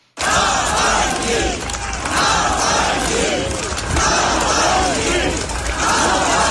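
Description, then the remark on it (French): Thousands of people at a funeral in Moscow chant a name loudly in unison, many voices rising and falling together in a steady repeated rhythm that continues without pause, with no single voice standing out. “Ils ont scandé ce nom que le président russe n'employait jamais pour parler de son opposant.”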